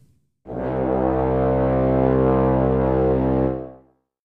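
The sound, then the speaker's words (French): A deep, booming C1 note from four layered instruments played together from a single MIDI clip through an instrument rack on one track in Ableton, held steadily for about three seconds with a rich, buzzing, horn-like tone, loud and alone, then fading out quickly. “L'astuce est de faire jouer tous les instruments ensemble par la même note C1 précédente, dans un seul clip MIDI”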